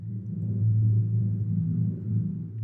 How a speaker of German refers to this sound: dann schlug sie ganz vorsichtig und schnell hintereinander auf ihre Pauke, so dass nur ein leises Grollen zu hören war.